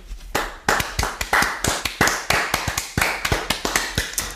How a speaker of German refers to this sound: Und ähm, da wollen wir uns mal ganz doll bedanken an alle Familien und alle Leute, die uns da mithelfen. Können wir mal klatschen.